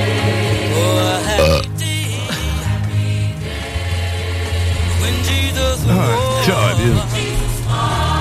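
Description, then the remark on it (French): A long, loud burp into an open radio microphone, a deep, rumbling belch that drags on for several seconds with wavering pitch and a guttural, croaking texture. “Puis l'affaire la plus intelligente qu'il trouve à faire dedans, c'est de rater le gros cochon.”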